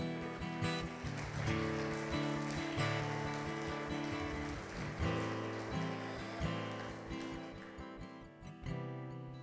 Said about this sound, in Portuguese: Aplaude o nome de Jesus.